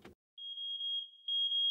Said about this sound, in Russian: Внимание, пожарная тревога. Срочно покиньте помещение.